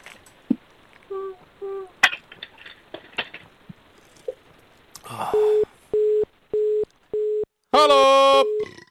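A telephone busy signal after a caller's line drops, apparently from phone line problems: a steady mid-pitched tone pulsing on and off in short, even beeps, loud and clear, following some brief muffled line noise and voice fragments.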